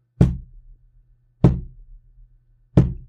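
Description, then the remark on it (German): Three firm, resonant knocks with a stick or hand on a wooden chair in a particular rhythm, evenly spaced about a second and a quarter apart, each with a short hollow decay. Distinct, with no voices. “Und alles, was die Person macht, ist mit diesem Stocker oder mit der Hand auf diesen Stuhl zu klopfen und mit einem ganz bestimmten Rhythmus.”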